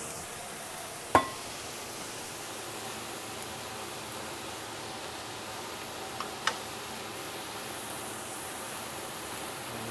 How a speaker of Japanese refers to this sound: 換気扇の音がちょっとうるさいかもしれません